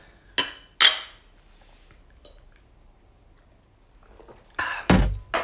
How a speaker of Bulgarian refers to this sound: Момчета, имате ли бира? На здраве. Да. На здраве. Здраве.